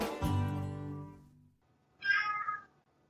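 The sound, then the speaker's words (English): A cat named Hippo meows twice in an apartment: first a long, low, drawn-out yowl that fades away, then after a short pause a brighter, higher-pitched meow. “I, uh, the cat who resides in his apartment.”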